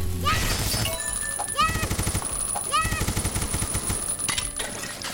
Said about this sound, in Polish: Machine gun. Tutaj jest machine gun właśnie i możemy strzelać z niego na zasadzie tej.